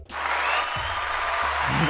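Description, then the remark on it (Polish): A burst of crowd applause plays as a sound effect, a dense, steady wash of clapping that starts abruptly and holds at an even, fairly loud level for about two seconds. “A to ten tłum, to ten tłum słuchaczy luźno przy kawie, że tak powiem, nie?”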